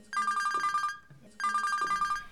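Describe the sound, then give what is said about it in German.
A mobile phone rings inside a cable car gondola in two clear bursts, each a rapid trilling warble lasting about a second with a short pause between, loud. “Doch jetzt nicht, denn mein Handy klingelte.”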